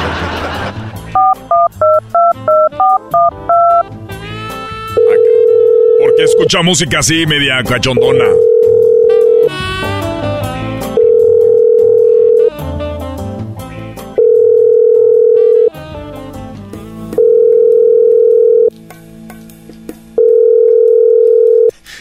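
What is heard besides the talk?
telephone number being dialed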